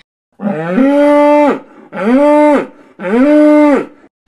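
Three loud, drawn-out moos from Charolaise cows in the French countryside, from the documentary film Bovine, each lasting about a second with short pauses between and with no other sounds around them.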